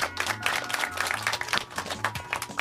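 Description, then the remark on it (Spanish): An audience applauds steadily, a dense patter of many hands clapping at once, fairly loud and sustained across the whole moment, with a low hum underneath. “Un aplauso, bueno, está bien.”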